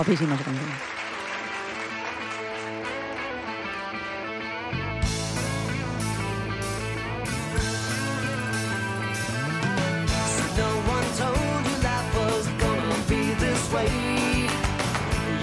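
A pop song recording plays: a brief melodic intro, then a full band with punchy drums and bass kicks in after about five seconds, staying loud and steady.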